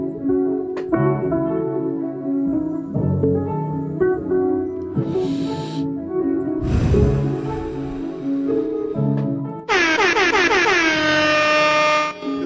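A loud rap track plays steadily with a heavy low beat and layered synth tones, then a bright, blaring air-horn-style blast with falling pitch sweeps takes over near the end.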